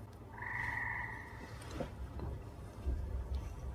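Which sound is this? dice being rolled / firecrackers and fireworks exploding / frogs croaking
frogs croaking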